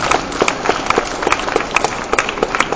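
An audience at a comic award ceremony applauds the winner of the Comic, Manga, National prize steadily, many hands clapping in a dense, crackling patter with no pauses, holding an even moderate loudness throughout with no voices over it.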